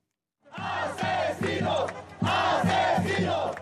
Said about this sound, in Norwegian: Morder Morder! roper tusener av mennesker som har samlet seg foran den israelske ambassaden i Chiles hovedstad Santiago. Israel myrder det palestinske folket, roper demonstrantene